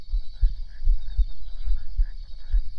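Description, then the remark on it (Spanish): A loud, deep heartbeat thumps steadily in a slow, regular rhythm, each beat a muffled low pulse, with a faint steady high-pitched hum in the background. “Y nuestros corazones laten más fuerte.”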